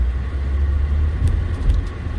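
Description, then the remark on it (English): A car's interior engine rumble drones steadily, with a few brief mechanical clicks and clunks from the gearbox near the end as the driver shifts gears; moderately loud, with no voices. “That's the gearbox, by the way. I'm shifting.”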